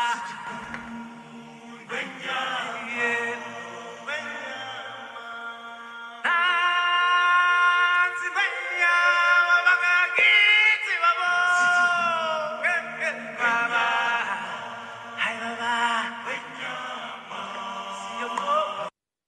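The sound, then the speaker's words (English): Show music tied to The Lion King plays steadily for the whole stretch, with sustained tonal notes and what may be singing over it; it grows louder and fuller partway through, then stops abruptly at the end. “every time I just hear that music, it just stirs me inside.”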